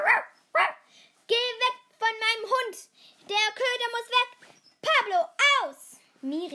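A dog barks repeatedly and loudly, in irregular bursts of sharp, high-pitched barks and yelps with short pauses between them.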